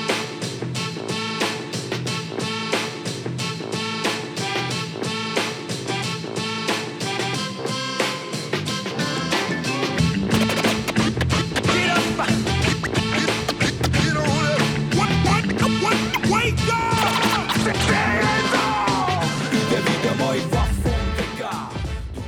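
A hip-hop track from a newly released album plays loud and steady with no talking; a layered melodic intro gives way midway to a heavy bass and beat that carries on to the end.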